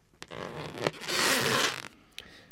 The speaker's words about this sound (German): Er muss abschrecken, indem er mit Muskelkraft seine Schwimmblase zum Vibrieren bringt. Und das macht dann eben dieses Geräusch, so wie wenn wir über einen prall gefüllten Luftballon streichen.